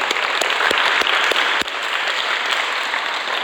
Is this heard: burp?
no